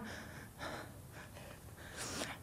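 Ragged gasping for breath: a run of sharp, airy inhales and exhales in uneven rhythm, with the last gasp the loudest and harshest, and no talking.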